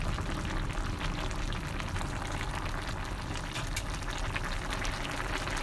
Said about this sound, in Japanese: ぐつぐつ言うとりますわ。